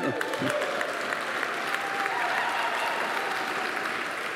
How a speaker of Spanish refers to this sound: Ahora, eso fueron las mamás aplaudiéndole a los papás. Ahora los papás, apláudanse ustedes también.